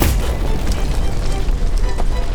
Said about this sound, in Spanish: El 17 de octubre de 1814, uno de esos barriles gigantes de la Meuse Brewery, que en aquellos tiempos era la fábrica de cerveza más grande del mundo, reventó.